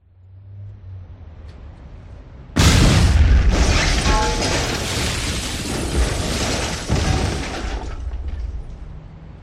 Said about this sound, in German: In der Innenstadt explodierte die Fassade eines ansonsten unverdächtig aussehenden Bürogebäudes. Eine dunkle Rauchwolke stieg entlang der Hausfront nach oben.